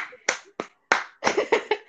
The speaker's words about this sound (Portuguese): Nossa, como eu falei sério! Puta que pariu, vou até me aplaudir.